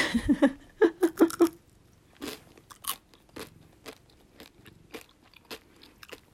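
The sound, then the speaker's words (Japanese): A crunchy Kanro La France (pear) flavoured gummy snack, like a gummy version of kohakutou, bitten with a burst of loud, crisp crunches followed by steady, softer chewing crunches that continue at an irregular rhythm. “分かんないから食べます”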